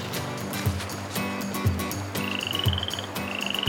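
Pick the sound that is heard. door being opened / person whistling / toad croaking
toad croaking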